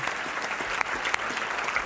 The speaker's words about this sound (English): And I love Jesus. And I love, if you love him, you ought to clap your hands. I think you should. I do.